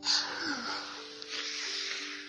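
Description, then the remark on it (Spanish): A person blows out a long, breathy gust of air, imitating a wolf huffing; the airy rush starts strongest and holds steady for about two seconds. “¿Y cómo sopló?”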